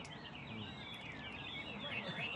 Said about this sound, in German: Training, die Männer halten die Käfige aneinander, damit sich die Vögel beim Zwitschern überbieten.